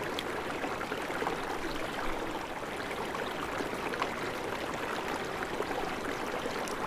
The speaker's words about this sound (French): Vous êtes guidé par le son de ce filet d'eau qui est devenu ici un ruisseau.